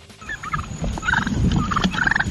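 A turkey gobbles in a series of rapid, warbling, loud bursts, with several repeated calls tumbling over one another and no one talking.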